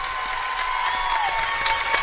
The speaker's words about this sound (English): They got a little placard that says 1,500 there. And he gets a great hand from this big crowd here.